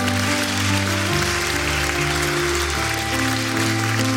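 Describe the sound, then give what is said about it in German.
An audience applauds for Jesus Christ after a prayer, a dense, steady wash of clapping that holds for several seconds over sustained, shifting keyboard chords. “Gib mal Jesus Christus einen kräftigen Applaus.”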